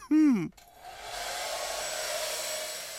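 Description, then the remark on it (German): A short vocal exclamation, then a hair dryer switches on and blows with a steady whooshing roar and a faint whine for the rest of the moment as someone blow-dries their hair. “Apropos Löwe, vor lauter Siegestaumel habe ich ganz vergessen, meine Löwenmähne zu föhnen.”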